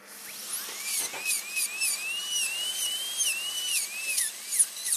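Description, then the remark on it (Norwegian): A dental drill whines steadily during a dog's tooth surgery at a veterinary clinic in Oslo, Norway, milling away some jawbone on the outside of the tooth, its high pitch wobbling up and down as it grinds through bone, with faint scraping clicks over the top and no talking. “Så freser vi bort litt kjevebein på utsiden her.”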